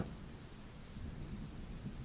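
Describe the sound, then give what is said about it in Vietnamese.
Steady, dense rainfall hisses across the whole clip while a deep, continuous thunder rumble rolls underneath, fairly loud, with no voices. “Nghe sấm chớp trời mưa nè”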